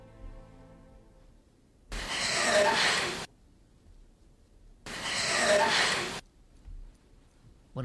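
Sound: labored breathing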